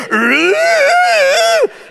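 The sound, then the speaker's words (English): A person imitates an old cat's eerie, drawn-out howl in the middle of the night: one sustained, wavering yowl that rises in pitch and holds for about a second and a half before cutting off, loud. “They will literally start going, now when you're dead asleep, and you hear a demon in the next room going,”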